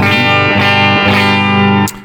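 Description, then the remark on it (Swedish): A sustained electric guitar chord rings out loud and dry through an amp set to its Fender mode with no reverb, slightly driven in tone, shifting to new chords twice before cutting off with a brief pick scrape at the end. “Det här är inställt på eh, Fender-läget med en 212 eh, tror jag.”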